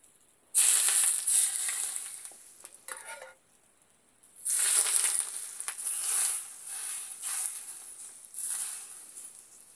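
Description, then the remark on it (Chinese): Loud, hissing sizzle of hot oil, scooped with a soup ladle after the flame of a home stove is turned off, bright and crackly, surging in bursts with a brief quieter lull in the middle before flaring up again; no one speaks. “一定要擦干，不然这个热油一碰到水要爆炸了。”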